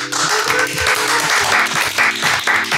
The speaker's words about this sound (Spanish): Un aplauso para todos.